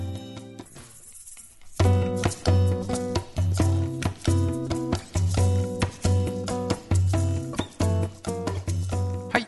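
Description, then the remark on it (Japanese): A song by an artist from Kyotango City, Kyoto, plays loudly on a radio program, opening with a brief quiet intro before a full band kicks in with a steady, punchy beat and sustained melodic chords. “ではここで1曲音楽をお届けしたいと思います京丹後市出身のアーティストです”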